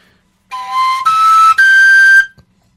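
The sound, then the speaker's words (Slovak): A three-hole folk pipe plays three sustained, breathy notes stepping upward in pitch, the first, third and fifth tones of a major scale, each held about half a second, clear and fairly loud with no voices. “A to je tzv. durová stupnica.”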